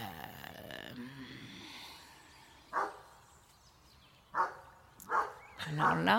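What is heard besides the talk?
dog barking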